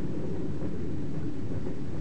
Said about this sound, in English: Oh yeah, there's there's a, that's a, that's a that's a, a record of a train in West Virginia. It is. It's an authentic record of a train in West Virginia.